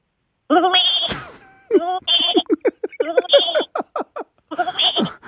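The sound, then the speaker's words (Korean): A goat bleats several times, loud nasal cries with a wavering, stuttering tremble, the calls coming in quick succession with brief pauses between them. “염소 살이요. 염소.”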